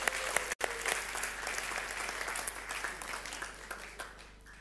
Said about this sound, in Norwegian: Er det noen som har begynt i første klasse her nå? Er det noen? Ja! Så bra! Da gir vi applaus til dem som har eh, starta i første klasse.